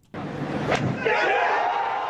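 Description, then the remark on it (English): A large crowd at a big sporting event erupts suddenly into a loud, sustained roar of cheering that swells and holds steady, with a brief rising shriek cutting through early on. “Listen to that crowd.”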